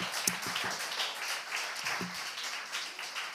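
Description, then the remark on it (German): Audience applause welcoming a guest speaker, a dense, steady patter of many hands clapping at a moderate level for a few seconds, with faint voices briefly audible underneath. “und ähm, ja, genau, ihr könnt ihr mal einen Applaus geben.”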